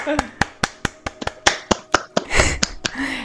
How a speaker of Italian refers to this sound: Un applauso a tutti i gentili spettatori che ci stanno ascoltando.